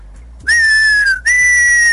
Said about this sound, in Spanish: Juegos pirotécnicos. Los juegos pirotécnicos o los cohetes